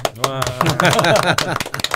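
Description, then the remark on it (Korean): Hosts clap their hands before starting a segment: sharp hand claps ring out in a quick, uneven run of several crisp slaps, mixed in with people talking over them. “네, 보통 저희가 이런 일이 있을 때 박수를 한번 치고 시작하거든요.”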